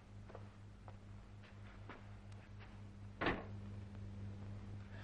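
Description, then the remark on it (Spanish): A maid shuts the drawing-room door as Doctor Van Helsing leaves, a single solid thud about two-thirds of the way through, standing out over a steady low electrical hum and faint scattered knocks. No one speaks. “Gerda le sigue y cierra la puerta del salón.”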